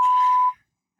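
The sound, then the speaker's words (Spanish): A single sustained electronic beep, a steady pure tone lasting about half a second, loud and clear with a faint buzzy edge, then abrupt silence. “perdón, perdón, es que he escuchado un pitido.”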